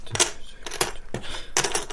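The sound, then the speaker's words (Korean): A handful of coins is poured onto a hard counter to pay at a checkout, several bright, irregular metallic clinks, fairly loud, with no one speaking. “동전 우르르 줘서 200원 싸게 사려는 거 내가 모를 줄 알고”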